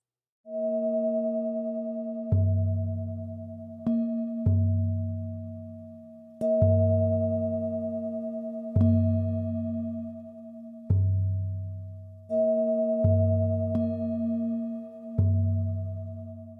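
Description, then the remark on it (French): Sound loops of Tibetan singing bowls humming in a continuous, shimmering drone while a deep drum thumps steadily about every two seconds, forming a looping meditative rhythm with no voices. “je vous propose des boucles sonores que j'ai réalisées là ces derniers jours avec euh, mes bols tibétains et mon tambour”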